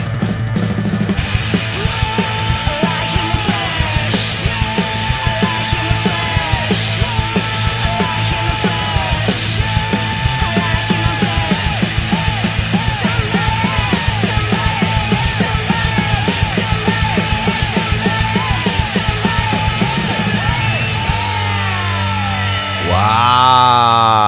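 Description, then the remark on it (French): A loud, wild rock track with dense distorted guitars and pounding drums, topped by a powerful screaming female vocal that soars and strains throughout, ending in a rising howl. “les riffs de guitare, en passant par la voix super puissante de la chanteuse. C'est vraiment énorme et c'est très très très sauvage”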